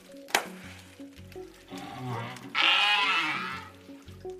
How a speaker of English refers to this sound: Others you might find surprising, like the groans, pops, and creaks that are part of the southern right whale's repertoire.